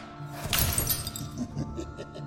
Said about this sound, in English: Uh, and then he points his hand, palm outstretched, at a uh, crystal decanter on the table. And he speaks a sharp arcane command word, and three tiny darts of force fly out from his palm, strike the decanter, and shatter it.